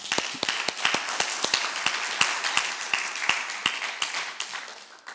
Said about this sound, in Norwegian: Froland menighetssenter. Gi en applaus for de to.